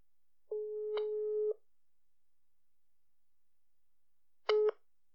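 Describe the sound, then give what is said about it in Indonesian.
A telephone ringing tone sounds alone as a call is placed to a guest: one long steady electronic tone lasting about a second, a pause, then a shorter burst of the same tone. Clean and fairly loud, with no talking. “Oke, kita langsung telepon.”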